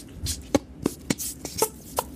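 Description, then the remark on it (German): An armpit fart made with a cupped hand: about six short, dry, slapping pops at an uneven pace, fairly quiet and without talking. “Das war jetzt eine Achselfurze”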